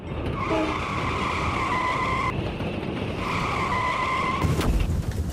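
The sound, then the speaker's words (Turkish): Two long, high tire squeals of a skidding car, each holding a steady whining pitch, followed by a sudden loud crash as the car hits two parked vehicles, overturns and is dragged several meters, over a constant rumbling background. Recorded by a residential complex's security camera. “Bir otomobil park halindeki iki araca çarptı, takla attı, metrelerce sürüklendi.”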